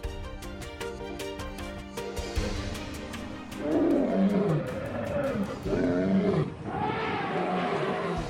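Savanna ambience with steady, rhythmic clicking gives way to big cats roaring: several loud, rumbling roars in quick succession fill the second half, with no talking.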